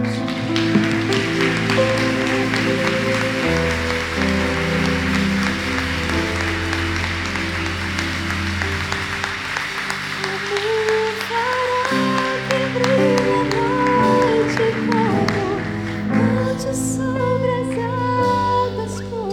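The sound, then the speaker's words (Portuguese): A large church audience claps steadily and continuously, applauding the Lord for the lives of church members, a dense patter of hands blending with loud sustained music playing over it, without pause for the whole stretch. “Eu quero pedir a toda a igreja que aplauda ao Senhor pela vida desses irmãos.”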